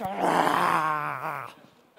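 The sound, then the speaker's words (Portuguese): A person imitates a small pet dog's low, rumbling growl when food is put down for it, lasting about a second and a half, fairly loud, the snarl tapering off at the end. “Animal doméstico, a minha cachorrinha é tão bonitinha, eu preciso da ajuda, viu”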